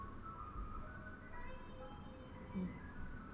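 A faint ice cream truck jingle drifts in from outside as the truck comes by a house at nine o'clock at night, its thin electronic melody playing steadily over a low background rumble.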